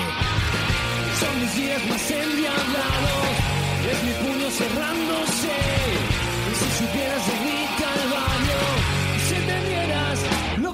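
A live rock band plays at full volume at Club B, with driving drums, dense distorted guitars and bass filling a loud mix that stays steady throughout, a shouted vocal edge cutting through the music.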